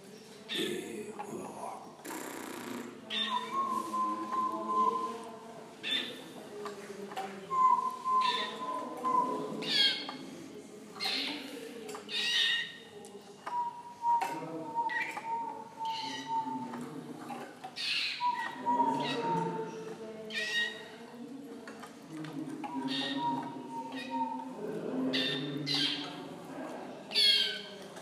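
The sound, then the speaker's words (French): A small noise made at a bird stand to coax canaries into singing: a short, steady mid-pitched squeak repeated every few seconds, amid busy clicks, chirps and murmuring voices. “ce que tu nous fais là, le, petit bruit, c'est pour les, inciter à chanter Les inciter à chanter.”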